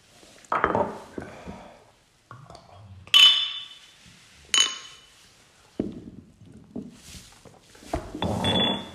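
Glasses clink together in a toast, two bright, ringing taps a second or so apart, fairly loud, among soft handling noises and low rustling.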